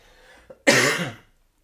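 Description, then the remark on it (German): A single forceful cough, fairly loud, bursting out after a brief quiet moment and trailing off with a raspy tail. No one speaks. “Und ey, es ist ein bisschen herausfordernd, wenn man husten muss, das so ein bisschen zu unterdrücken.”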